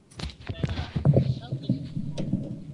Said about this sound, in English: Is that a drum? No, that's uh, the springs on my mic stand vibrating.